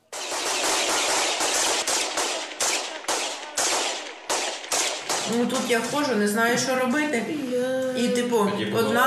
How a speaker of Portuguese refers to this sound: As explosões são perto das escolas dos miúdos.